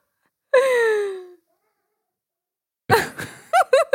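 A cat lets out a loud, drawn-out meow that slides downward in pitch, followed after a pause by a cluster of shorter, choppier cries and yowls.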